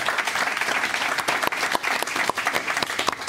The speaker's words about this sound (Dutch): En natuurlijk ons publiek. Ja, voilà, dat applaus mag komen.